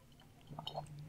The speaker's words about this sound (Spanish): pausa para tomar. Ah, traguito, sorbito.